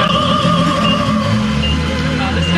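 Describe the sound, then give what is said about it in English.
Classical music, played 24/7 by a store owner, plays steadily outdoors outside the store, sustained tones carrying at a moderate level over a low rumble of passing traffic, with no one talking. “As classical music plays, this area is emptier than usual.”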